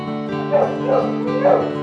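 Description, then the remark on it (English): A 14-month-old crossbreed dog lets out about three short, whiny barks mixed with high whimpering, the yelps rising and falling over a steady pitched drone. “You're a good looking dog, aren't you?”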